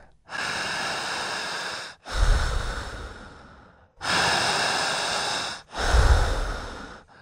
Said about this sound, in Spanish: Sigan respirando solamente por la boca, al estar respirando bien, empezaremos físicamente a sentir cositas raras. Siga respirando, fuerte, intensa, larga, poderosa y potente. Sígame a mí, no la corte.